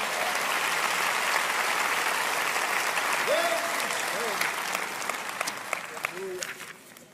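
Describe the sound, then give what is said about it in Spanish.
Sustained applause from a crowd for a group of young men, a dense steady clatter of many hands clapping for several seconds, with a few brief cheers or vocal calls rising above it before it starts to thin out. “Vayan, denles un aplauso a esos muchachos, por favor.”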